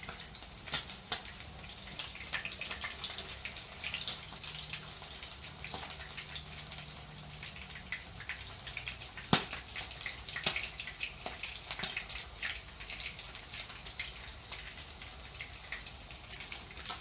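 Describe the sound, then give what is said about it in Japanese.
A tonkatsu pork cutlet, dipped in batter, fries in a small amount of oil, a steady bright hiss dotted with sharp pops and crackles, a few louder spits standing out over about seventeen seconds, with no talking. “なので今回は油少なめでとんかつを揚げてるんですけどめちゃくちゃ油吸いますね”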